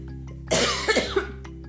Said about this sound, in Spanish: Amigos, qué pena neta con ustedes por tanto toserles.